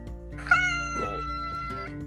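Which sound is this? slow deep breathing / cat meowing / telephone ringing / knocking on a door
cat meowing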